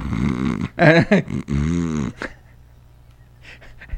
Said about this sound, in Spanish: Entonces, gente, pues miren, ya es la una de la mañana, nosotros ya tenemos mimis por acá, producción se nos está mimiendo en el sillón. Sí, producción ya está dormida, pues, Tiene sus buenos ronquidones.